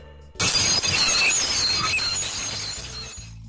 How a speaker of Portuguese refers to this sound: Cara, este som do prato sendo arranhado é terrível.